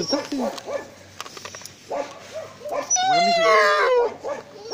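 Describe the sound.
A sad dog whines and then breaks into a drawn-out, wavering howl right into a person's ear, with a person talking over the first part of the whimpering.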